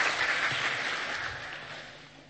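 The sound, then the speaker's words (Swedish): Audience applause thanking performers for their acting fills the moment, a dense wash of many hands clapping at once, loud at first and slowly tapering off over a couple of seconds with no voices over it. “Vi kan väl tacka dem, en applåd bara här.”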